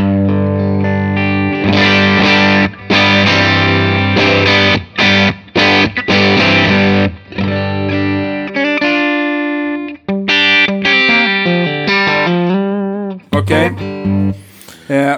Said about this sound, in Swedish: Så du får ja. spela lite rockackord så, så Precis, ska vi... Ska ungefär, eller ungefär, precis så här låter det säkert. Jag spelar lite hårt och löst.